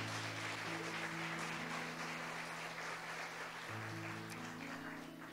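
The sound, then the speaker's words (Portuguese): A church audience applauds the Lord for the worship team steadily for several seconds, a dense wash of clapping over a low sustained organ or keyboard tone that shifts pitch partway through. No one speaks. “Vamos aplaudir o Senhor pela vida deles.”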